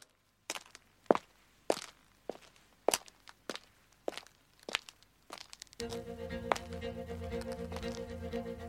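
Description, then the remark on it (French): Steady footsteps crunch along a path, evenly paced, about two steps per second, before a louder, continuous humming noise with a steady tone takes over at the end. “Jean partit pour la ville. Ses vilaines chaussures lui faisaient un peu mal aux pieds”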